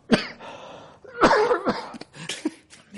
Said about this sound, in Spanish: Es normal que le dé la tos